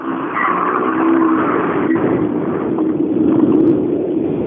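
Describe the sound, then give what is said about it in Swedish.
A car engine hums steadily as a vehicle with its lights on drives up, a continuous low rumble with a faint brief click partway through, and no talking. “Men helt omöjligt att veta vad det är för bil.”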